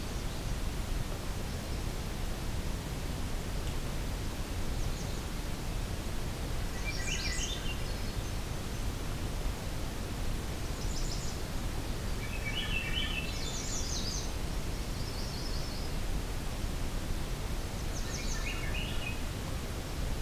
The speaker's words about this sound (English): There's definitely yellow-rumped and American redstart here. I'm trying to listen. I think there might be a magnolia warbler in this mix too.